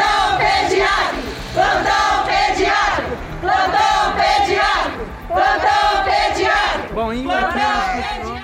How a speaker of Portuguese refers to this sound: Com cartazes nas mãos, este era o grito das dezenas de mães que compareceram ao manifesto em frente à unidade de pronto atendimento de São João Del Rei. O protesto aconteceu na noite da quarta-feira, 25 de outubro.